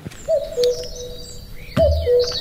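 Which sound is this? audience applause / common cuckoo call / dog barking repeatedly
common cuckoo call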